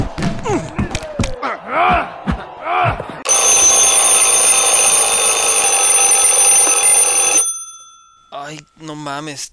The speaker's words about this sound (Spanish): tengo que cambiar de despertador, está de la verga.